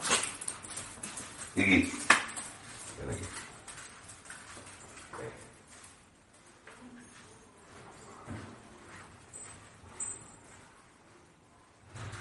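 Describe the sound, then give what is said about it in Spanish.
Restless dogs shuffle and patter around in a kitchen, their claws clicking irregularly on the floor, with a few sharper knocks and some faint background voices. “es que si yo estoy en la cocina los perros se ponen muy nerviosos.”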